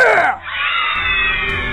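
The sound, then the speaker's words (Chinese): A single loud, drawn-out howl from a big grey wolf: a wavering wail that dips briefly, then holds a steady, high, overtone-rich pitch for over a second. “果不其然，陌生人突然脱掉羊皮，嚎叫着说：“ 来吧，妈妈，我们开吃！”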